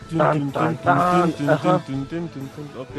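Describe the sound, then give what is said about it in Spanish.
A single voice sings a short, tense melody in a string of pitched, rhythmic bursts, imitating the ominous danger music of a video game heard while walking through one of its dungeons. There are no actual words, just vocalized notes. “en especial los efectos sonoros vas caminando así en, uno de los calabozos y te suena así como música de peligro, así como”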